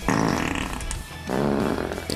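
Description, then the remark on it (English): A loud wet fart sound with a sputtering, buzzy texture, running in two long blasts separated by a brief dip, with no talking. “Remember the wet fart comment from Sunday?”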